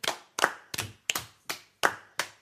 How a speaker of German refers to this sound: Oh, so ein Klatschreim.